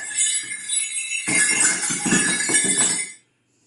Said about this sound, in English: at Christmas time, Joseph Smith III would dress up like Santa Claus, and he'd put these sleigh bells, sleigh bells around his, his shoulders, and they would pass out apples from his orchard. I'm going to take the bells off right now.